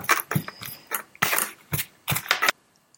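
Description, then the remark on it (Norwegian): Brisk stirring of natto in a bowl, mixing it together: a quick, uneven series of scraping clicks and clatters for a couple of seconds, then quiet. No one speaks. “Da, da bare mikser man det her sammen.”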